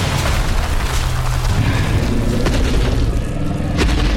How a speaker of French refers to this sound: Mais. Mais que se passe-t-il encore mais regardez ce qui vient d'éventrer les murs du studio. Oh Une chienne